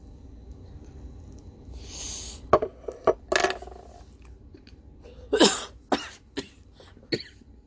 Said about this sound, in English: I cough almost every time. My husband gives me a hard ass time about it because he thinks I should learn when the coughing, you know, when not to finish taking a hit so that way I don't cause a cough.